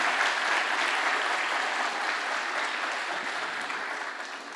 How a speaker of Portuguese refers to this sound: Dá uma salva de palmas a Jesus pela vida dessa galera, em nome de Jesus.